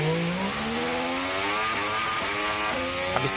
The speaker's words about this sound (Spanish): Esto es un V10, época mm, de años 2000 de Fórmula 1, y ahora mismo lo que tenemos es un V6 turbo híbrido que suena así.